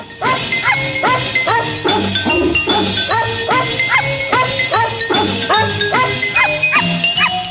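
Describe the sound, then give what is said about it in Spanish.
Dogs bark in a rapid, rhythmic series set to music, their yips pitched into a bouncy melody over a steady backing beat, loud and continuous throughout. “¿Y quienes están ladrando?”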